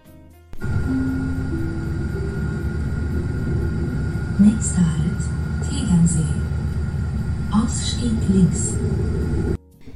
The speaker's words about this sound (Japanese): 今日の配信は冒頭にリアルな電車のアナウンスを入れてみたのでちょっとびっくりした方もいるかもしれません、えー、ドイツ語がわかる方はすぐにお分かりいただけたかと思うんですけれどもアナウンスでは n e x t e Halt t e g e n See Ausstieg links というアナウンスでした